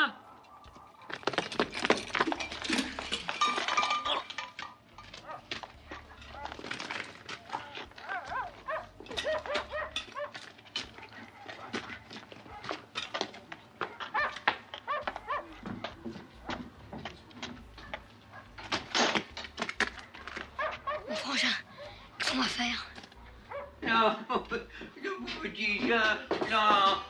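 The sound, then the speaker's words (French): Several dogs bark and yelp in a loud, continuous, overlapping chorus, with sharp bursts piling on one another for the whole stretch. “C'est toi qui fais gueuler les chiens comme ça”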